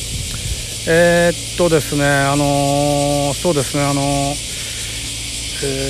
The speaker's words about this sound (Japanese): 今ねちょっと朝の通勤時間を利用して1本撮ってるんですなのでこうセミの声がねめっちゃ響いてると思いますが、まあ、ご了承ください